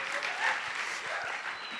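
Steady audience applause, a dense wash of many hands clapping at a constant level, with no talking over it, lasting under two seconds.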